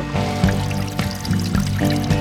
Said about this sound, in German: Das ist hier zwischen dem Laub. Hier läuft noch so ein mini kleiner Rinnsal quasi in den Bach.